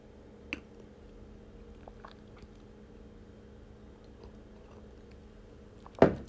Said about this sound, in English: Let me take a sip of coffee.